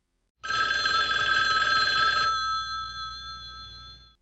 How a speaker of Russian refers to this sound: Но тут у него зазвонил телефон